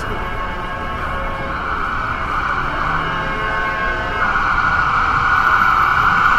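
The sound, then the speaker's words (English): A loud emergency vehicle siren blares nonstop along a busy city street near Lexington Avenue and 41st Street, its harsh tone riding over traffic rumble and swelling even louder toward the end. “one more more hellish siren noises.”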